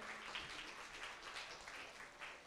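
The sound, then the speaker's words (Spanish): An audience claps steadily throughout to welcome first-time visitors, a dense wash of many hands applauding together at moderate volume, with no speech over it. “Les damos un fuerte aplauso, por favor.”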